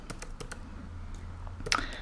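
Someone types on a computer keyboard, a few sharp, irregular clicks spaced through the moment over a low steady hum, with a brief flurry of keystrokes near the end.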